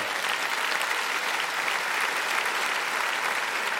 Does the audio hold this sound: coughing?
no